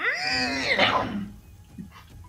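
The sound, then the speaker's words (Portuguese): A single drawn-out cat meow, loud, rising and then sliding down into a raspy, hiss-like breathy ending before fading to near quiet. “Beleza é o gato que tá ali em cima.”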